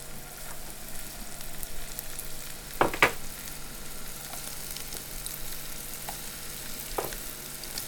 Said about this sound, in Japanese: そうですねまあ温まったらえっ、とフライパンの中にまあ、こういう感じの音っすね、うんうん、これがやっぱりしっかりあったまったって感じの